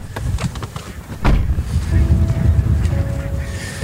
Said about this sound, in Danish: Og det er faktisk en smuk gås, den her bramgås.